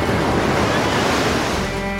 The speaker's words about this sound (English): Surrounded by the North Pacific, a cold but vibrant ocean. It batters its shores